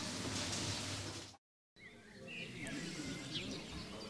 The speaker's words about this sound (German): Vogelgezwitscher, der Innenhof beim Regiohaus. Sitzen hier 30, 40 Leute draußen und genießen ihr Mittagessen in der Sonne.